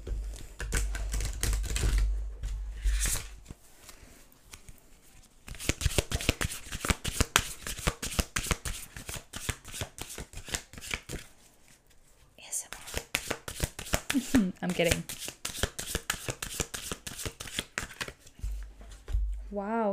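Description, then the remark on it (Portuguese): Oracle cards are shuffled before a card is drawn, in repeated bursts of quick, crisp riffling and flapping, with brief pauses between rounds and a few faint background sounds. “vou agora vos tirar uma carta do oráculo.”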